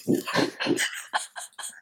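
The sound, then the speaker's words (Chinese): A dog barks in a quick series of about six or seven sharp, loud yaps. The first few are deeper and fuller, and the later ones are shorter and higher. No one speaks. “你说到了，哎，就是那个狗给打断了。”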